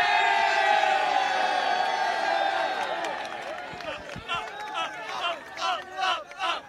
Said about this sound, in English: This chant was constant.